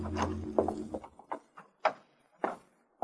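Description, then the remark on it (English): A skeleton key, the third tried from a ring of skeleton keys, working the old door lock of a third-floor apartment near Fairfax and Wilshire: a low rumble opens, then a series of sharp, irregular metallic clicks and rattles as the key is jiggled and the mechanism turns. “And I pulled out a ring of skeletons. The third one did the trick.”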